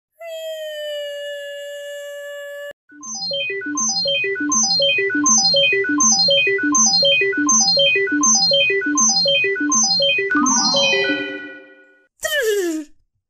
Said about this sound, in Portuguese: Posso ligar a minha máquina do tempo? Podes ligar a máquina do tempo para 1991, dia 28 de novembro.